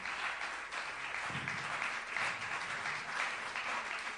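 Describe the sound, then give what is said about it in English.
A crowd applauds steadily as the Little Giants are called onto the stage, a dense wash of many hands clapping at once, sustained and fairly loud throughout with no voices standing out. “Let's give them a big round of applause, ladies and gentlemen.”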